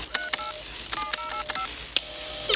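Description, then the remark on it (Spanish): A rapid series of electronic beeps from the keypad of a DeLorean time machine's time circuits as a destination time is entered, in short bursts of two, then four, then one, ending with a sustained high tone. No one speaks. “Registras tu tiempo de destino en este teclado.”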